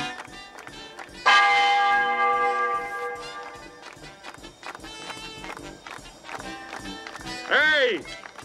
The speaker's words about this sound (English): Ring out the church bells.